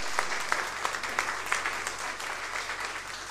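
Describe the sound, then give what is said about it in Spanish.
A crowd claps steadily in applause for the Lord, dense overlapping applause filling the space with a few sharper claps standing out, sustained throughout at moderate loudness with no voices on top. “Un aplauso para el Señor.”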